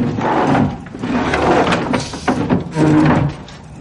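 A wooden chair is moved and set down on the floor as Tormund places it in front of Jamie, with loud scraping and knocking that runs for several seconds in two main bursts, and no one speaking.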